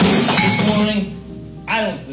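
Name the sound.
glass being smashed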